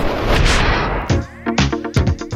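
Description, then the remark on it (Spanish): A dense, roaring burst of gunfire opens the sequence, followed by three or four separate loud shots spaced about half a second apart, each with a ringing tail. No voices. “suena bonita la guitarra de señor …, pero suenan feas las balas”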